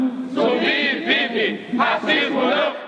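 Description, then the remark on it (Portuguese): A large crowd at the 1995 Zumbi dos Palmares March for Citizenship and Life in Brasília, at least 30,000 people from the Black movement and supporters, chants loudly in unison, many voices rising together in rhythmic, repeated bursts with brief dips between phrases. “Você acabou de ouvir o registro da marcha Zumbi dos Palmares pela Cidadania e a Vida, realizada em 1995 em Brasília, onde pelo menos 30 mil pessoas do movimento negro e também seus apoiadores estiveram presentes.”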